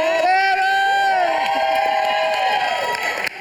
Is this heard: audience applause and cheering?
yes